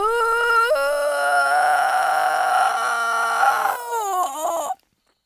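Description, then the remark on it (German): A strained, high-pitched vocal whine held for several seconds, wavering and tightening as someone holds back laughter, ending in a few choked upward squeaks before cutting off; a laughter-avoidance noise made in answer to how the last season of the show LOL sounds. “Das ist ein Lachvermeidungsgeräusch.”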